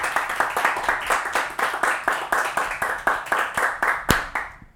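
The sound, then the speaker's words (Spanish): An audience claps together for the Lord in a steady, brisk rhythm, the sharp beats fairly loud, continuing for several seconds before stopping abruptly. “Dale un aplauso fuerte al Señor, vamos. Pero un aplauso de fe.”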